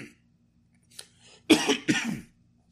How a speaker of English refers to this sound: that was a cough by the way.